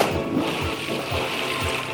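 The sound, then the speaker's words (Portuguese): An anchor is dropped from a boat into the Red Sea with a loud, churning splash, followed by steady rushing and low rhythmic thuds, continuous, with no voices. “Enfim, já chegamos! Lançar âncora!”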